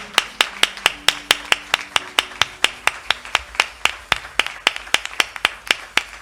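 A crowd claps in unison to welcome a pastor, to a steady, brisk beat, roughly four sharp claps per second, loud and even throughout, with a faint hum of voices underneath at the start.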